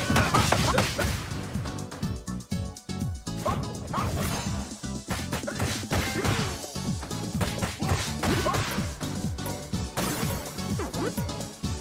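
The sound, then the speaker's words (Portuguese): Video game item-breaking sounds, sharp glassy shattering crunches repeating in quick succession, loud and continuous over busy layered game audio for the whole stretch. “é um som meio de estilhaço de vidro”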